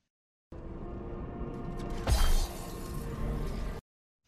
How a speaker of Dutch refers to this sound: het afhakken van een vinger van Sauron met de One Ring eraan